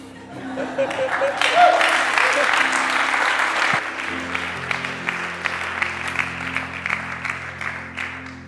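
An audience applauds a speaker during a church sermon, steadily for several seconds, a dense patter of many hands clapping at once, swelling early and then holding a fairly even level before tapering slightly, with faint murmurs underneath.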